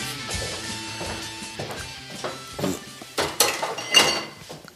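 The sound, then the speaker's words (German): Glass beer bottles clink and knock together in a beer crate as it is handled, with a run of irregular bright rattles and thumps, growing a little louder toward the end. “Kiste Bier, Bierchen umgang.”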